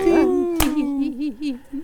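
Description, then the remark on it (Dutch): A human voice imitates a barking dog in a sung Dutch song, with drawn-out, wavering woofs and yelps, fairly loud, interrupted midway by a single sharp click. “Waf, woef, waf, woef, waf, woef, waf, woef, te Nu blaf ik alle dagen en wij nog over.”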